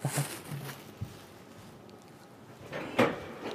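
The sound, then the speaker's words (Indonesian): A door being closed, with a few soft knocks and a clattering rattle toward the end, set against quiet room tone with no one talking. “Pintu sana ditutup.”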